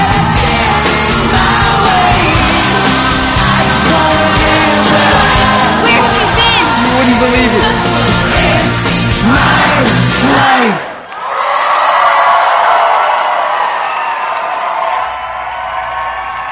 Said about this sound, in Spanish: que a uno le sale del alma, le sale del alma pegar ese grito para comenzar una nueva temporada